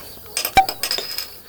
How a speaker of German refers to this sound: Stoßen wir an, nicht?